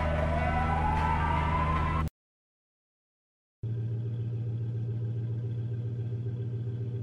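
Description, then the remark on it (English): A police siren wails upward over a low engine rumble as a cop flags down a truck, cuts off into a second of silence, then a steady idling vehicle drone continues with no one speaking. “There's a cop flagging you down.”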